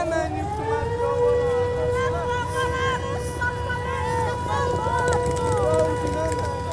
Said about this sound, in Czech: Pravidelně ve městě znějí protiletecké sirény.